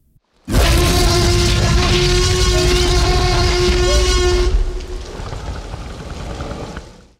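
A massive, sustained T. rex roar from a film blasts for about four seconds with layered tonal harmonics, then drops into a softer, low rumbling purr before fading. No talking.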